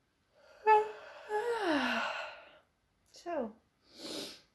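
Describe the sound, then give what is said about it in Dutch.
A long, deep yawn with a voiced, downward-sliding groan, followed by a shorter yawning moan and a breathy exhale, fairly quiet, with no talking. “Tot in de diepte komen gapen los.”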